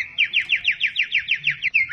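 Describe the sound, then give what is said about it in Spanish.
A bird-trill sound effect for the radio segment El Cazador de Trinos plays on its own: a fast, even run of about a dozen bright, rising chirps, loud, with no talking. “Aquí está El Cazador de Trinos.”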